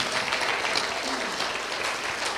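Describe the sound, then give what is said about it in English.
Sustained audience applause for Jesus during a sermon, a dense crackle of many hands clapping at a steady loudness throughout, with a faint voice mixed in beneath the clapping. “I would give Jesus a round of applause if I was you.”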